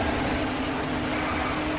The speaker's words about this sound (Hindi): lucky ने seat बदल के गाड़ी ड्राइव करना शुरू किया पार पड़ रही सर्दी वो अपनी गाड़ी में भी महसूस कर पा रहे थे और लकी ने गाड़ी का ब्लोअर ऑन कर दिया